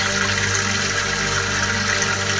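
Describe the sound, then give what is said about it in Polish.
A steady, loud rush of running tap water over a dirty plate being washed, continuous for the whole stretch with a low droning hum underneath and no one speaking. “Kurde, nie mogę domyć tego talerza.”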